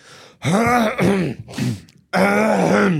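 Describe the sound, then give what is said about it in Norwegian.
A loud voice clears its throat in several voiced, groan-like bursts, a pause before a final longer one; no words are spoken. “Da begynner kjører jeg kremting.”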